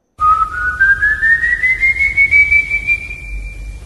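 A single eerie whistle of the Silbón, a figure of folk legend, slides slowly upward in pitch and then holds a steady high note, fairly loud over a faint low rumble, with no one speaking.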